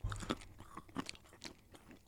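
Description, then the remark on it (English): Crunching of hard black licorice-flavored candy being chewed, with several sharp, brittle crackles at an uneven pace over a couple of seconds. Nobody speaks. “These are like crunchy, good and plenties.”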